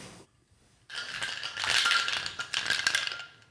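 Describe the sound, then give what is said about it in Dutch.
A cocktail shaker holding a Sicilian Negroni made with blood orange juice is shaken hard for a few seconds, ice rattling in a rapid, bright, continuous churn that swells and fades, preceded by a brief faint clink. “Ja, nu gaat er eentje in een shaker.”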